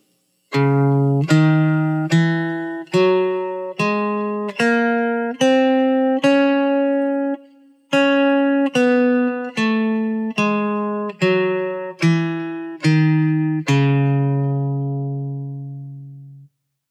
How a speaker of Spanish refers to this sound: Continuamos con la escala de Do sostenido menor melódica. Do sostenido, Re sostenido, Mi, Fa sostenido, Sol sostenido, La sostenido, Si sostenido y Do sostenido. Escuchemos.